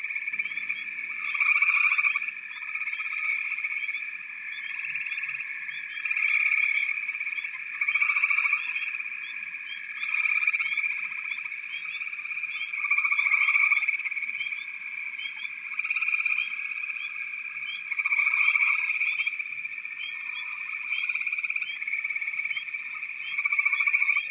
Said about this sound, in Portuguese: O barulho dos outros sapos, essa ladainha, fazem com que você tenha um diálogo interno com você mesmo.